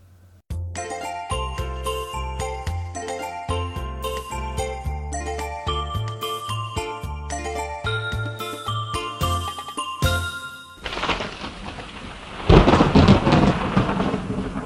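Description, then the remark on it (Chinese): A tinkling, bell-like melody plays for about ten seconds, then gives way to the rushing wash of a heavy nighttime downpour in a sudden storm, with a loud burst of rumbling thunder near the end. “倾盆大雨伴随着轰隆隆的雷声从天而降，谁都明白，这一夜将是令人恐惧的一夜。”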